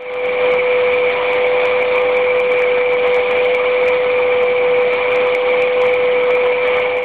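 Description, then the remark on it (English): A vacuum cleaner runs steadily and loudly in the UAE, its motor holding one constant high-pitched whine over a dense rushing roar for the whole stretch, with no pauses or voices. “This is a vacuum cleaner sound.”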